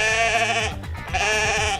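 Two loud sheep bleats in quick succession, each a wavering nasal cry with a brief pause between them, heard alone with no talking.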